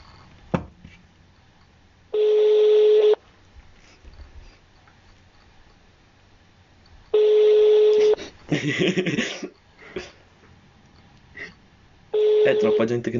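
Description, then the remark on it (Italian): A telephone ringback tone repeats three times at steady intervals, each long beep about a second, with no one picking up. Faint background murmur and a brief rustling burst fill the gaps. “Ma è possibile? Nessuno che risponde.”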